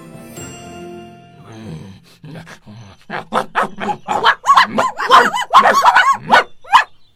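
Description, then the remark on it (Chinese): A pack of dogs led by a big wolfdog, circling a load of beef at a city gate, growl low and steadily at first, then break into a rapid, overlapping run of loud barks and yips that grow more frantic toward the end. “于是杀了牛，把肉运到城里，在城门遇到大狼狗领着一群狗，虎视眈眈地围着牛肉。”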